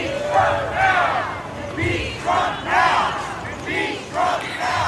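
A crowd of protesters at a street intersection in Cleveland, Ohio, chants "Impeach Trump now" in unison at a demonstration supporting Trump's impeachment, repeating it in a steady rhythm of loud, shouted phrases with brief pauses between, over a constant murmur of noise.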